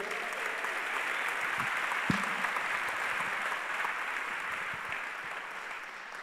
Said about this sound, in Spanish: Estuvo extraordinario, gracias a los músicos. Denle un gran aplauso a los músicos.